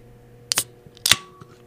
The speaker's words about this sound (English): That is a Perrier lime. Ah, it's fucking delicious, dude. So now that I cracked open the Perrier lime, let's talk about it.